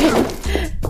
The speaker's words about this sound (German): Was machen die da? Sie brechen die Tür auf.